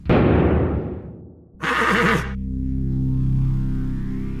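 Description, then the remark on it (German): A horse lets out a loud whinny that trails off, followed by a brief burst of breathy snorting and then a low, steady hum that carries to the end. “Mehr als nur eine Pferdestärke, unglaubliche Höchstgeschwindigkeit, nur vier Scheffel Heu auf 100 Kilometer.”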